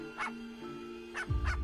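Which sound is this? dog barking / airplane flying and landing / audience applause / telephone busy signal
dog barking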